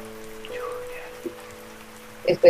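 Soft, steady rain patters in the background under a low sustained hum, and a couple of louder drips or splashes land near the end.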